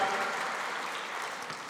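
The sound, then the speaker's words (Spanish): A steady wash of applause from many hands, dense and even throughout, with no voices rising above the clapping; a loud applause offered to God, the one who lives and reigns. “Fuerte aplauso para que vive y reina.”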